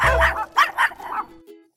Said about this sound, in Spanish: el tema de hoy, mi perro ladra todo el tiempo. ¿Qué puedo hacer para controlar esto? Mi perro ladra, ¿por qué ladra?